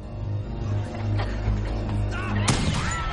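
A single sharp gunshot, hitting a security guard, cracks out loudly near the end, cutting through a low, droning background of rumbling tones.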